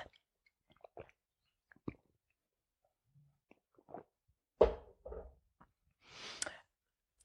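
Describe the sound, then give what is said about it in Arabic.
Someone takes a sip of water: faint mouth clicks and small wet sounds, then a couple of louder gulping swallows and a soft breathy exhale at the end. No one speaks. “فيا جماعة الخير لا تنسون تشربون موية خلنا ناخذ باصنا شوي ونشربنا جغمة ماء”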